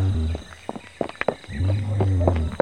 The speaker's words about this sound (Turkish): Bir kaplan kükremesi duyuluyor. E, aa kaplanlar. Kaplanlar.